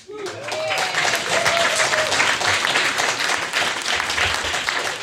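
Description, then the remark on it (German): A live audience claps and cheers loudly and steadily throughout, with whoops and a few whistles rising above the dense applause. “Aber für die nächsten Male, wenn wir es fragen, muss es ja ein bisschen lauter sein, weil Leute zu Hause hören das nach”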